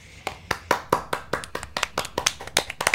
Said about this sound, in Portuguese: Então, é, temos que que dá essa palmas para o nosso menino Frank.